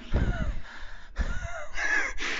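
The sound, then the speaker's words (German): Heavy panting while climbing the stairs of a monument, somewhat over 100 steps so far: deep, rough breaths repeating about every second, loud and breathless, with no talking. “Ja, wartet einmal kurz nur das Atmen hören.”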